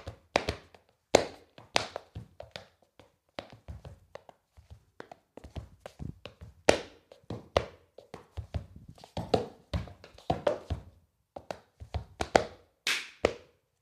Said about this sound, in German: Äh, brauchst du irgendwie aufwärmtechnisch oder ist das gefährlich, wenn du einfach rumsteppst oder ist das okay jetzt?